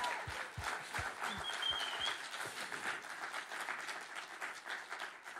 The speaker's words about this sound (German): Ihr habt so ein cooles Team und ich möchte ganz am Anfang einfach euch einen Applaus geben. Mögt ihr das? Lasst uns sie ehren und ihnen ganz herzlich einen Dankesapplaus geben.